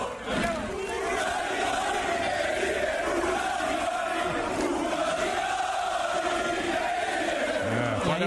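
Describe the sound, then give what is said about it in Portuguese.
A large crowd at a Ferrari celebration in Milan chants "Felipe, uno di noi" in a steady, loud roar, many voices blending into a rhythmic rallying cry that holds throughout without pause. “cumprimentar, né, todas as pessoas que estavam lá e eles começaram a gritar.”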